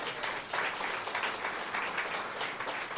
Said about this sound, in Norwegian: Så en applaus til dem.